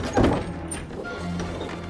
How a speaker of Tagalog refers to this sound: Nagtuloy-tuloy naman kami papunta sa pinto sa harap ng bahay. Sinubukan namin itong buksan at agad naman itong nagbukas.